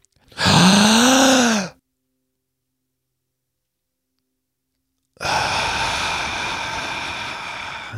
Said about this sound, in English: We're going to take a deep, slow, very deep breath. Hold. Exhale. We're going to do two more of those. Deep breath in. One more.